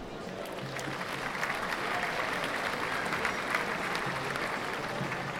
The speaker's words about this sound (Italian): Ho già descritto altre volte sull'anfiteatro naturale che si va formando quando una folla è mossa dal desiderio di vedere qualcosa e prima di giungere sul sito udivo i battimani col quale si faceva applauso ad ogni bel colpo.